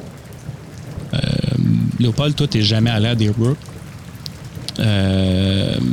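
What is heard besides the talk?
heavy rain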